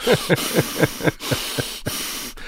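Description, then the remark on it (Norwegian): A voice imitates a moose's heavy, forceful breathing through the nose, a quick series of about eight hissing snorts in a steady rhythm, fairly loud, with no talking. “De elga seg inn på folk, og de står på litt sånn stive bein og puster tungt gjennom nesa”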